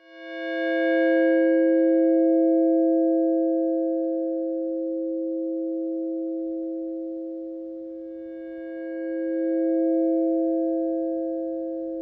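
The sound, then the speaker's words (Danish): A bell in the tower of an old textile factory, now the Mass MoCA art center north of New York, recorded for a work by German artist-composer Christina Kubisch, tolls with a deep, humming ring hanging for several seconds, then is struck again, bright overtones swelling back before slowly fading. No one speaks. “Her i pausen mellem klokken, der ringer, der kan jeg lige nå at sige, at øh, det er en optagelse af et klokketårn fra en gammel tekstilfabrik, som nu er omdannet til kunstcentret Mass Mocha, som ligger en lille, smuk togtur nord for New York”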